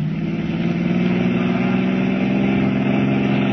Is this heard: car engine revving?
yes